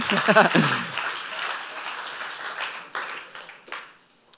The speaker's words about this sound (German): Ja, komm, geben wir Jesus einen Applaus.